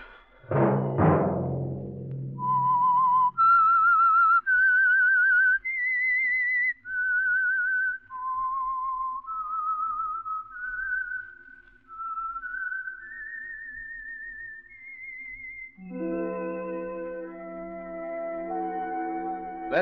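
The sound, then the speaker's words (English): A lone whistled melody, the theme signal of the radio program The Whistler for Signal Oil, rises and falls through a dozen clear, sustained notes, loud, after an opening thud, then gives way to a swelling burst of instrumental music. “that whistle be your signal for the Signal Oil program, The Whistler, each Monday at 8.”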